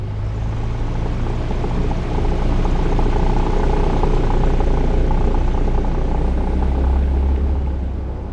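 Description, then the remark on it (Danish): A loud, steady engine drone with deep low-frequency rumble fills the whole stretch, like the propeller engines of a small twin-engine Cessna, continuous and unbroken. “Det er jo sådan en lille tomotors Cessna.”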